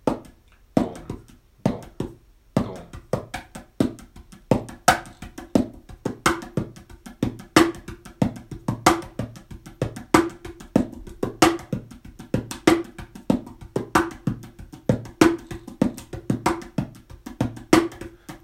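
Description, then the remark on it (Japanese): A hand-played mini cajon groove repeats steadily: a varied 16-beat pattern with the low bass hits moved to spots other than the heads of beats 1 and 3, deep bass thumps landing between crisp, sharp slaps, with no talking. “で、えっと、まあ、今の16ビートをさらにその、えちょっと変形させて、バスドラムの位置を少しこう、ちょっと、えー、叩く場所を変えたりすることによって、またその、えビートのニュアンスが変わってきます。”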